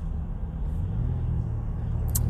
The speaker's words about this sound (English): wait a minute, I got a car pulling out in front of me here. Get out the way, you crazy people.